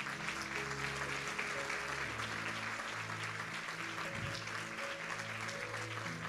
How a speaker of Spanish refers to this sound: Gracias Padre, vamos a dar un aplauso a Jesús.